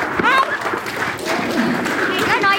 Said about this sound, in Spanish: Bueno, entonces vamos a darle un aplauso a los niños. ¿Sí?